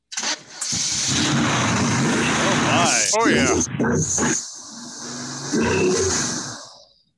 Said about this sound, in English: And of course, I can start it up for if you want, so you can hear the engine. Does it rumble? Oh yeah.